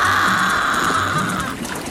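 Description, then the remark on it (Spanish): A steady, loud roar of rushing water, like a waterfall pouring continuously, with no pauses and no voices. “Solo se oye el estruendo del agua. El torrente de limón incesante.”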